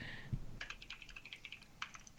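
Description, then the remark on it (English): Rapid keyboard typing, a quick run of light clicky keystrokes in an irregular rhythm, fairly faint, with no voices over it. “Who's typing?”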